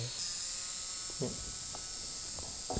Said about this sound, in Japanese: まあドリルの音が、ね、ドリルの そうそう完全にドリルの方にマイクをつけといた方がいいんじゃないかなと一瞬思いました